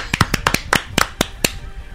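A short burst of applause for a couple from a small group, sharp hand claps arriving in an uneven, loose rhythm, fairly loud, with no talking over them.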